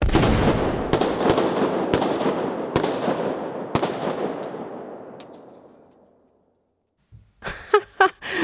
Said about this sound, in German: Nein, es sind, es sind natürlich Schüsse, es sind Gewehrschüsse und das ist eine Folie, die ich gerade abgespielt habe, eine PowerPoint-Folie.